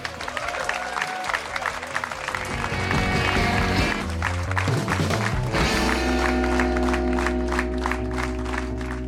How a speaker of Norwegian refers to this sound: Gi ham en stor applaus.